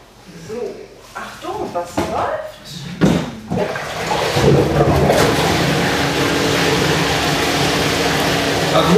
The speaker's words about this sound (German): noch in der vielen großen gläserischen Kasten vorstellen, wo von unten jetzt Wasser hochgepumpt wird.